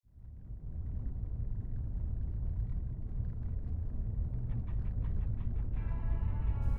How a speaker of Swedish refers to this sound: Elias satt ensam i bilen och körde mot Dalarna